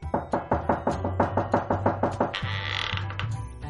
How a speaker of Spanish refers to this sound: se fue directa al castillo de las reinas de Pinipón y llamó a la puerta